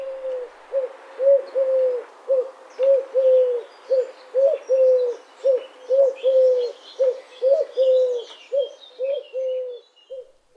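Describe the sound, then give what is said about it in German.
A Eurasian collared dove gives its three-syllable courtship call over and over in steady, rhythmic phrases with a change in pitch, its soft low notes clear, while small birds chirp faintly in the background. “dass man es mit äh, einer Türkentaube verwechselt, wo äh, die Rufe, die Balzrufe ähnlich klingen können, dreisilbig bei der Türkentaube und manchmal dem Kuckuck halt ähnlich mit dieser Tonhöhenveränderung hören wir uns kurz die Türkentaube an.”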